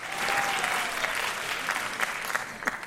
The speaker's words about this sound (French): Pour qui sont ces applaudissements